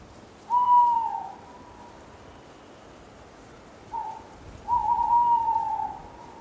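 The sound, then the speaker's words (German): An owl on a branch of a withered tree gives a drawn-out, plaintive hoot, followed after a pause by a softer hoot from another owl in the distance, answering, then a longer call, against a low, quiet background hiss. “Eine Eule auf einem Ast eines verdorrten Baumes heulte kläglich und erhielt Antwort von einer anderen in der Ferne.”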